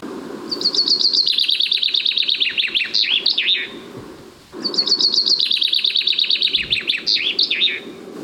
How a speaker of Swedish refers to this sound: Ja, vi har en bofink lite avlägset här. Så här är sången.